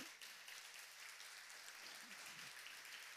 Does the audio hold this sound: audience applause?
yes